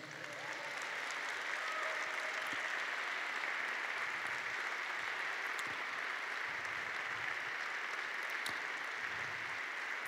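Sustained applause for Jesus from a crowd, a dense steady wash of clapping that holds at an even loudness for about ten seconds, with no one speaking over it.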